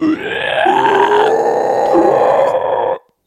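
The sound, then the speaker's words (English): A single loud, raspy inhaled scream in the metal style, held for about three seconds with a harsh, shrieking, wavering tone before cutting off abruptly. It is unaccompanied. “I always call those pterodactyl screams because that's what they always sound like to me.”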